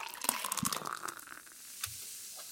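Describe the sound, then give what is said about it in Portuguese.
A sharp crack as a beer bottle cap pops off, followed by a steady, hissing fizz that settles into a soft crackle, moderately quiet with no one talking. The beer is a German-style beer flavored with jabuticaba. “Ô, Cleito, se você me permitir, eu vou abrir aqui para tomar um golinho dela, tá?”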